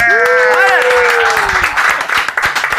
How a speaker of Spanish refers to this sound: Ah, así es de que mis compas, …, les encargamos, ya saben, el aplauso.